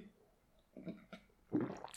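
Someone takes a sip of coffee: a few soft wet mouth sounds, then a louder, breathy slurp near the end. No talking.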